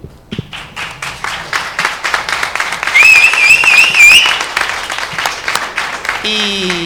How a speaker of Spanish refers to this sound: Eh, después de 14 años, creo que esta gente solo puede empezar con un grandísimo aplauso.